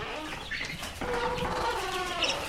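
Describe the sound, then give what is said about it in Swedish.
Several chickens cluck and chatter together inside a henhouse in the morning, a steady overlapping flock murmur with occasional higher calls rising above it. “vi tänder morgonljuset i, i Tarjas hönsstall. Kycklingstall.”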